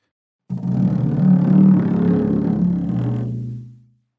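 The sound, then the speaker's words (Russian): A low, drawn-out moaning tone from a moistened finger rubbed across a frame drum's membrane, imitating an anxious whale song. It swells and wavers for about three seconds, then fades away. “положил бубен над водой, э, мембраной кверху, провел по нему пальцем, сделал такой вот пение, тревожный пение кита”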